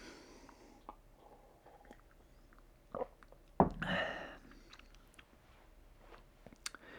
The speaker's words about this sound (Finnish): Hörppy.